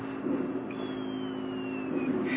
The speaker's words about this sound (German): Das fiese Rattern der Rotoren.